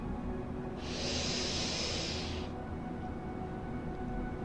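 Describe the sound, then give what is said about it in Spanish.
A single deep, airy breath, rising and fading over about a second and a half against a steady low background hum, with no talking. “Y ahora te pido que tomes una respiración profunda”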